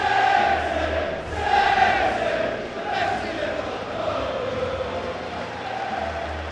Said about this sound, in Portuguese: O Burnley recebe o Manchester City. Times entrando em campo neste momento. Estou acompanhando essa partida ao lado da torcida do Manchester City. Vão escutar eles cantando aqui atrás. Vamos dar um sobe som para o City.